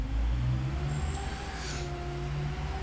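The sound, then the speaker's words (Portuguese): A garbage truck's engine rumbles steadily outside, back for the second time that day, a low droning hum with faint higher whines, holding at moderate loudness for a few seconds with no one speaking. “mas o caminhão de lixo voltou agora, né?”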